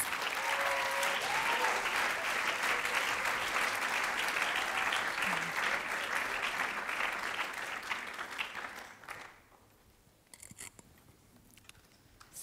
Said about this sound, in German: Ja, und jetzt dürfen wir sie auf die Bühne bitten. Äh, gebt ihnen doch einen herzlichen Applaus